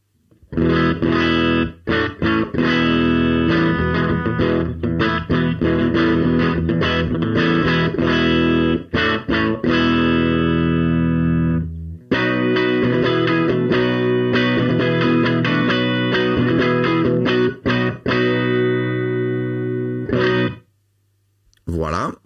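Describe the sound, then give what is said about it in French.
A heavily distorted, fuzzy electric guitar plays a reference tone through a V-Twin preamp: loud, thick riffing chords with dense buzzy overtones, briefly pausing around the middle, then cutting off near the end. “Recréer le son de … … avec une Neve 88M”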